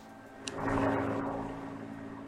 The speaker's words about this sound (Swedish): Det fanns en helikopter i luften, men det var ingen polishelikopter. Det du hör, som är filmat av folk på andra sidan, det är en helikopter från media.